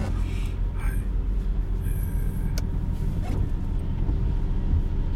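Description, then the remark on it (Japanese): A car passes outside, a steady low engine and road rumble that holds at an even loudness throughout, with a few faint higher hisses and clicks over it. “と今車が変ですね”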